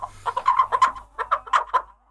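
A rooster, held by its owner, a rooster trainer, clucks in a quick, uneven run of about ten short, throaty notes, with a brief pause midway and no other sounds around it.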